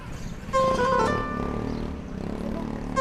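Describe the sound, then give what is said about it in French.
Street noise of the working-class Medina neighbourhood, heard through a door open onto a courtyard in the early afternoon: a steady low rumble and murmur of traffic and activity, with a brief high tonal whine or horn-like note rising above it early on. “Les bruits du quartier populaire de la Médina nous arrivent par la porte ouverte sur la cour.”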